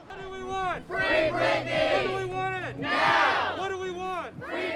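A crowd of fans protesting a singer's guardianship chants a slogan in unison, loud voices rising and falling in a repeated rhythmic pattern of shouted syllables.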